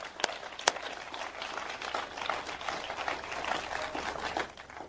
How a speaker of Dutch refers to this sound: Geef een applaus aan God. Absoluut.